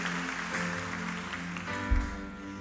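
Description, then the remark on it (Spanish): A church audience, called to stand on their feet, applauds in a steady, dense wash of clapping, with sustained low musical tones running underneath and a brief low thump toward the end. “un aplauso, ponte sobre tus pies, iglesia.”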